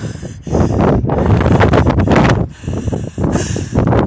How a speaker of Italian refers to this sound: Bene, spero che tu possa sentire questo vento. È mattina presto e c'è questo vento meraviglioso.